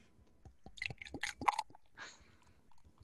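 Beer, chilled in a fridge to 8 degrees, glugs and splashes into a glass in a few short bursts, followed by a brief soft fizzing rush. It is fairly quiet, with no talking.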